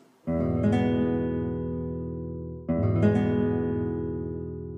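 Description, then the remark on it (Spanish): A major chord rings out twice on a plucked string instrument, each strum bright and full, sustaining and slowly fading before the next, with no voices. “Para no perdernos en discusiones técnicas, un acorde mayor tradicional suena así.”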